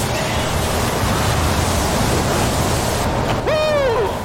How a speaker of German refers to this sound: Sandsturm.